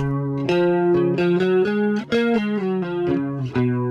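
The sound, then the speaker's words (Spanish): A bass guitar with a shimmering chorus effect plays a steady line of picked notes, roughly two per second, loud and alone with no voices. “El sonido de bajo con chorus.”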